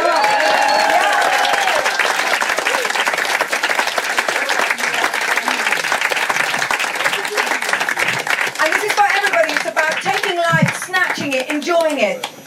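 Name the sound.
audience applause and clapping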